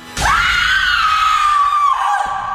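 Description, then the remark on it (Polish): A loud, piercing scream erupts suddenly in a silent house, coming from the upper floor, and holds steady at a high pitch for about two seconds before dropping off, with no other voices around it. “A co dopiero krzyk.”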